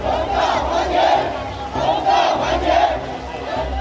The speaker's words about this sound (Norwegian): Utenfor hovedkvarteret til Evergrand samla frustrerte småsparere og boligkjøpere seg og ropte at de ville ha pengene sine tilbake.